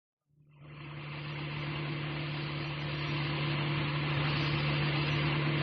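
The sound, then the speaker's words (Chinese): A car engine rises quickly from silence into a steady, rumbling drone with a low humming tone as the car turns onto the driveway in front of a house, holding an even, moderately loud level throughout, with no voices. “当霍利驱车拐上家门前的汽车道时，他看了看表，是中午差十分钟十二点。”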